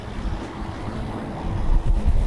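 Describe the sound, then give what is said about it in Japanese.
Strong wind buffets the microphone in a continuous low rumble, steady at first and swelling louder toward the end, with no voices present, on a day of strong wind during a ride by the sea. “いや、まあこんな感じで風があったりは結構今日こう強風吹いてるんですけどね。”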